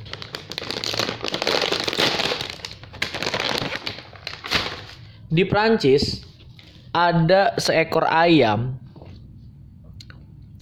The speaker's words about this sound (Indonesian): ini gue sambil nyemil nyemil gitu loh ya